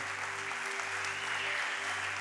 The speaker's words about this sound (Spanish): Aplauda al Señor.